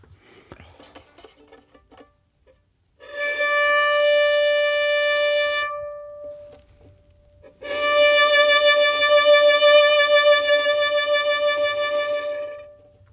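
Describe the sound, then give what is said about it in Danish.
Two sustained violin notes on the same pitch: the first played without vibrato, held steady and straight for about three seconds, then after a short pause a second, longer note with a clear wavering vibrato made by shaking the hand. “Øh, men du kan jo gøre det, at du kan vibrere på en violin. Det der med at ryste på hånden.”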